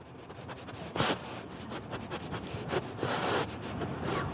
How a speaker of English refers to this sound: That's Loki. yeah, that was my dog.